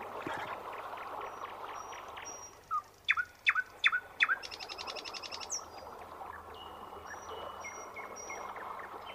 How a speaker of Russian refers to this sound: Тихо! Слышите? Что это? Это соловей. А, так поют соловей.